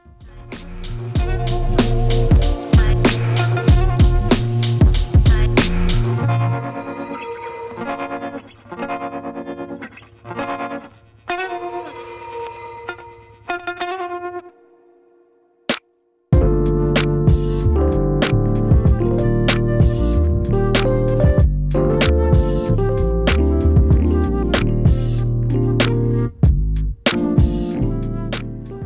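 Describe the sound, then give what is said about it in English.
A dense, punchy hip-hop beat thins into a sparser, processed passage, stops for a brief beat of silence, then a fuller, moodier instrumental of an introspective hip-hop track kicks in loud and steady, a transition between two tracks. No voices. “Let's listen to the transition from … to ….”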